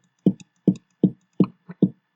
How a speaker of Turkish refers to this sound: Normalde bateri sesi buyken hemen şöyle bir 808'e geliyorum.